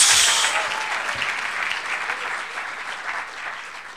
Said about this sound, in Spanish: Ah, démosle un buen aplauso al Señor, hermano. Gloria a Dios.